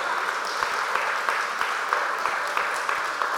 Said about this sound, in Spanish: ¿Cuántos les damos gracias también a cada uno de los pastores y de los voluntarios que sirven en esta congregación, como el equipo de adoración, los cantantes, las personas detrás en el sonido? Un aplauso para ellos también.